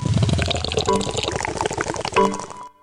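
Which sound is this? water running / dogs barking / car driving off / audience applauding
water running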